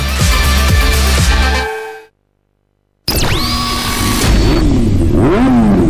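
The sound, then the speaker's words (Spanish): Loud engines roar at full power, cut by a second of silence, then return with a whining pitch that climbs and dips as they rev hard. “Sonidos de motores a la máxima potencia para pegar la vuelta.”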